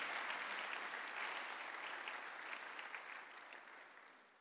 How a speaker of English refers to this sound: You see, I've told you clapping is free. You can clap if you want.